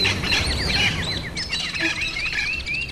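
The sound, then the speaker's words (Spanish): Parrots at a shop that sells parrots chirp and squawk nonstop, bright overlapping calls repeating quickly over a low background rumble, steady throughout. “fui a un lugar donde venden loro y...”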